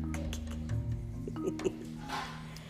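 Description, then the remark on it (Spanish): Faint running water from a sink, with a couple of soft clinks of dishes being washed, over a steady low background hum. “Disculpen el sonido de agua, que la fiera chiquita está fregando.”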